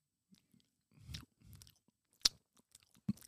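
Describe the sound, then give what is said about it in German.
Wet mouth smacking and chewing noises made by a comedian, a few irregular clicks and squelches with one sharp crisp smack partway through, no talking. “Schmatz wie ein ….”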